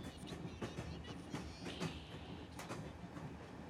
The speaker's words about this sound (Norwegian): Samtidig som Stine setter seg på det store toget, starter det lille lokaltoget de snart skal krysse med, turen sin fra Hamar.